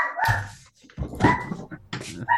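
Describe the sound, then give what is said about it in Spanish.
A dog barks several times in uneven bursts, mixed with higher whining, whimpering yelps, with no voices. “Dale agua a tu perro, no seas así.”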